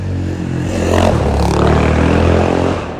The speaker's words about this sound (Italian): scusatemi per la moto